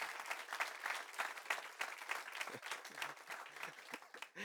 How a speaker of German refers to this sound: Dann geben wir Jesus einmal einen gescheiten Applaus, okay? Weil der hat sich, glaube ich, was Besseres verdient.